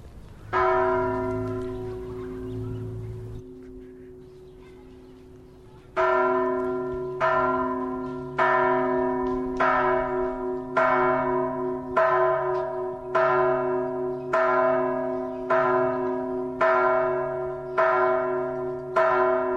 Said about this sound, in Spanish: estos tañidos de campana se anuncia una invasión divina. Dios quiere posarse sobre nosotros.